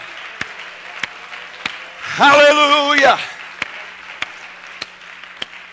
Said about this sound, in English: Give him a hand clap of praise right now.